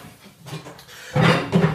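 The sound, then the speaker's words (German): A large, wide, white cooking pot is handled, with a soft metallic knock early on, then louder clanking and scraping in two bursts near the end. No voices. “großen weißen, äh, weißen, großen weiten Topf und ungefähr 2 Liter Wasser.”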